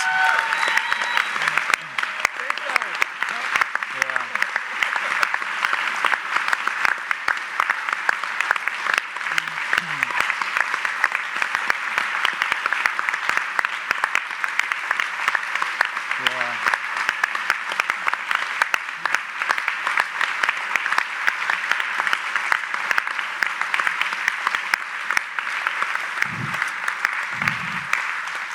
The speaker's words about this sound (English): So, can we stand and just give this, this couple and their son such a round of applause as we send them out?